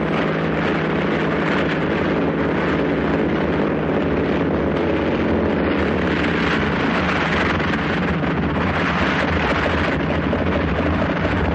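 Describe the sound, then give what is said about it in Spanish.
A motorboat's engine drones steadily, mixed with rushing wind and water noise on the open sea where a small plane went down, as the boat picks up a man; loud and continuous throughout with a constant low hum underneath. “En alta mar donde cayó la avioneta, una lancha recoge a Munson.”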